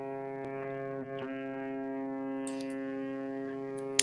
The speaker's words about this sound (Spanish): Y entonces lo escucháis, el característico silbido, casi olvidado, de un vapor fluvial del Mississippi, resonando en toda la plantación.